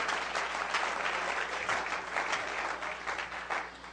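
An audience claps hands for the Lord in a steady, dense burst of applause, many hands together evenly for several seconds, with no voices standing out.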